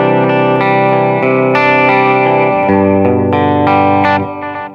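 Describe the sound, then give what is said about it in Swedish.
A loud, distorted instrument plays sustained chords through a delay echo effect with the B delay set to 500, notes smearing and repeating into one another over a few seconds, with no talking. “och sen så B-delayet sätter vi då i 500.”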